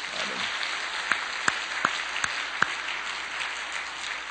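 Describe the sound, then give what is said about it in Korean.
An audience applauds steadily, a dense wash of many hands clapping for several seconds, with a handful of sharper, louder individual claps standing out from the crowd along the way. “박수 좀 칩시다.”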